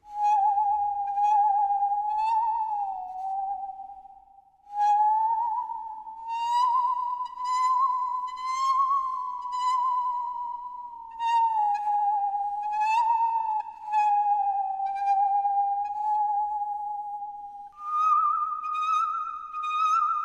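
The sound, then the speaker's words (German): A saw, bent slightly and played with a violin bow, sings a wavering, eerie tone around one pitch, sliding slowly up and down with vibrato for about twenty seconds as it plays the melody of a famous national anthem; loud, with no voices. “Ich schnapp mir bloß einen Geigenbogen, biege die Säge ein wenig in Form und schon singt meine Säge einen gar schön schauerlichen Süngsäggesang.”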